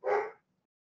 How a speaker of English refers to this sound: Anyway, um, if I'm going to apologise now if you hear a little dog barking.